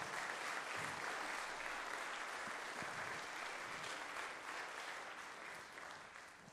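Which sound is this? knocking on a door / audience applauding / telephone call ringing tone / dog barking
audience applauding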